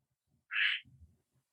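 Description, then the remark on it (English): A single short, bright frog call rings out clear, followed by a brief low rumbling murmur, with quiet silence on either side. “Here's our frog.”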